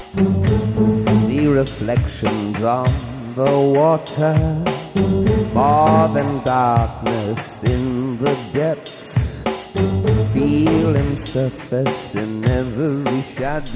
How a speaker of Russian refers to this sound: Вот как звучала эта демозапись, послушайте.